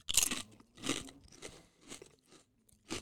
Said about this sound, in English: Uh, very flavorful, good crunch. You'll hear it.